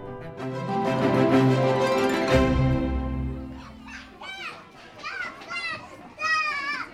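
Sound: children playing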